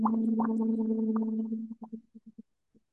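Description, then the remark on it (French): A single voice holds a steady, fairly low sung note in the comfort zone as a vocal exercise for about a second and a half, then it breaks into several short, choppy bursts that trail off into silence. “Et ensuite, quand c'est OK, bah juste vous rajoutez un son euh, comme euh, une note longue dans, dans votre zone de confort.”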